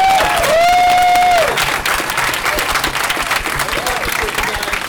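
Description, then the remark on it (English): A crowd bursts into sustained applause and cheering, dense clapping filling the whole stretch, with a long high whistle ringing out at the start and scattered whoops rising above the clapping. “Let's give another cheer.”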